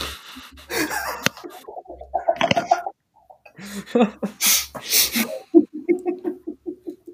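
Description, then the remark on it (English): A person makes clucking, bird-like noises with their voice, breathy bursts and throaty chatter ending in a quick, rhythmic run of clucks, fairly loud. “Dang. The birds.”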